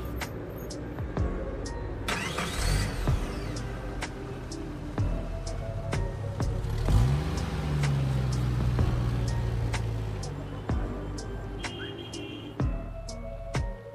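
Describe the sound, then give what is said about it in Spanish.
A car engine turns over and settles into a steady low hum as the vehicle pulls away, with clicks and faint mechanical ticking scattered throughout and no one speaking. “Por favor, permítame subir las cosas al auto.”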